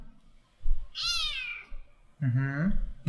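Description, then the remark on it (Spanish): A cat meows twice: first a high, thin, falling cry, then after a short pause a longer, lower, drawn-out meow, with faint background noise. “Miau.”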